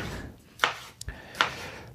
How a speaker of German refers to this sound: Also auch die Tomaten mache ich nur Würfel.